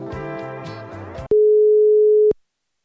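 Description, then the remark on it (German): A short melodic phone jingle gives way to a single steady, loud ringing tone lasting about a second, then silence, as a call to a mobile phone rings on the line. No one speaks. “Wir können den Zander mal anrufen, der geht immer ans Handy.”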